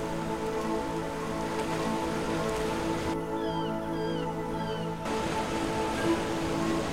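A steady, dense wash of ocean waves breaking against a shore of wet sand fills the whole stretch, in a sea breeze as the sun rises, with a few faint seagull cries slipping in briefly partway through.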